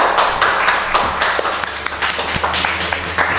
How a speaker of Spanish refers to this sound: Qué poco forzado ha quedado el aplauso.